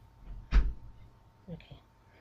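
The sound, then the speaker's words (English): A single solid thud of a door being shut, followed by faint murmuring voices and light shuffling. “please shut the door quickly.”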